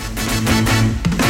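A fusion-style band's cover song kicks in loud, with dense full-band instrumentation, sustained low tones and a shifting melody line over steady rhythm, no voices.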